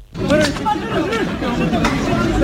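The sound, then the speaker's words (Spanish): A large crowd storming the border fence at Melilla in June shouts and clamors together, many overlapping voices forming a loud, dense, chaotic din that runs continuously without a break, from video audio. “Estos son sonidos del vídeo de la tragedia en el asalto de la valla de Melilla el pasado mes de junio”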